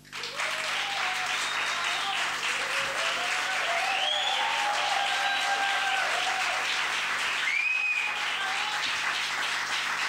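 A crowd applauds steadily for about ten seconds, a dense, even wash of clapping with a few brief cheers and whistles rising above it.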